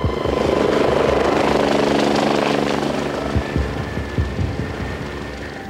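A life flight medical helicopter airlifting an injured woman roars, its rotor thudding in a steady, loud wash of engine noise that eases slightly toward the end, with sharper chopping pulses breaking through.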